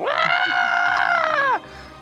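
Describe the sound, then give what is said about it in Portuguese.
A voice imitates a girlfriend's loud, shrill scream in a small cabin in the forest, held steady for about a second and a half before sliding down and cutting off. It is unaccompanied, with brief quiet after. “De repente, numa cabana pequenininha, você escuta sua namorada dar um berro.”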